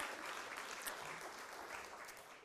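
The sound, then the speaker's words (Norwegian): An audience at a Sunday service applauds the worship singing steadily, a dense, continuous wash of many hands clapping at an even level for a couple of seconds, with no voices standing out. “Skal vi gi deg en god applaus?”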